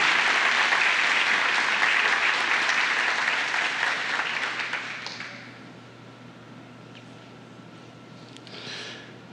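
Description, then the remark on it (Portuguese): An audience applauds God in a dense, steady burst of clapping for about five seconds, then it fades away, leaving a low hum and a brief faint swell near the end. “aplaudir a Deus, né, por essa.”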